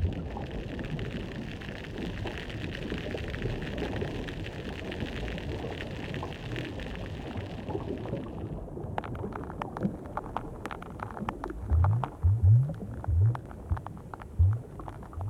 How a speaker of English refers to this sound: Dip a hydrophone into most aquatic habitats today, and you'll hear the voices of fish and crustaceans whose taxonomic groups first evolved sound making devices or became common during this time.